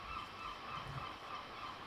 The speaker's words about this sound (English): Can you hear the seagulls? Yeah. Yeah. Uh, wow, that was a. Pooping all over my car. I call them shite hawks.